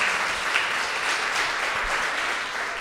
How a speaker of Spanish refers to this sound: Yo le doy un fuerte aplauso al Señor.